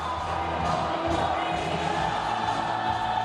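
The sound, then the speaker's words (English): A dense, continuous roar of thousands of fans fills an arena, steady and loud throughout, with many voices blending into one wash of screaming and cheering. “It wasn't long before the song moved out of the locker room and into the arena to the delight of thousands of screaming fans”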